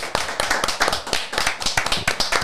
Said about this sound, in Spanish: Vamos a presentarlo con un gran aplauso.